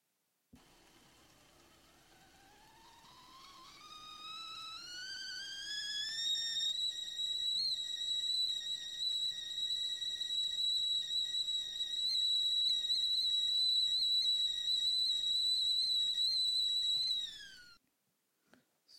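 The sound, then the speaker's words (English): A tea kettle whistles, its shrill tone rising in pitch over several seconds before holding a loud, steady, piercing note, then cutting off abruptly near the end. “So with uh, that I will end with uh, taking a sip of uh, tea and here is the tea kettle whistle.”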